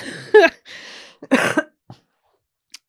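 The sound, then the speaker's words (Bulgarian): A couple of harsh, loud coughs from someone recovering from an illness, with a wheezy breath between them, followed by a softer throat-clearing sound and a faint click; no talking. “Аз оздравявам, обаче от кашля още да...”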